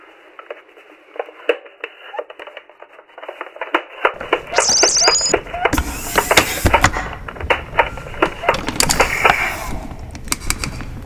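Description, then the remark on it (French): A space helmet being unlatched and removed: a busy run of sharp mechanical clicks and ratcheting snaps, growing fuller and louder midway, with a brief bright whine among the clatter. “Ça ne prendra que quelques secondes, mais j'aimerais retirer mon casque pour parler normalement sans être interrompu par une autre alarme.”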